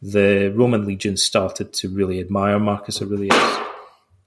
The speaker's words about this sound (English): They uh, that was my cat knocking something over.